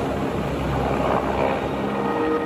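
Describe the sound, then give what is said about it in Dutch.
A steady, dense mechanical roar of a hijacked helicopter overhead, used in a prison escape with its pilot threatened with a weapon, continuous and fairly loud throughout with a broad rumbling wash and no speech. “Eh, we horen hier een helikopter die gekaapt wordt, een ontsnapping uit de gevangenis, een piloot die bedreigd wordt met een wapen.”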